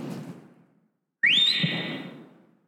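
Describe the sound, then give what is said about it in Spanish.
A single sharp whistle rings out after a short pause, sliding upward in pitch and then holding a long, steady note before fading, like someone whistling to call a person over. “¿A cuántos les hablaban por un chiflido?”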